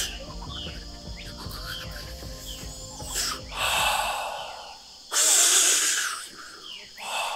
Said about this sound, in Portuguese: Ah, isso foi um negócio que aconteceu bem bizarro, assim, que o meu corpo começava a respirar assim.